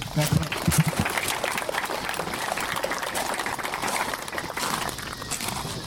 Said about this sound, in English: Give yourselves a round of applause for a great camp today.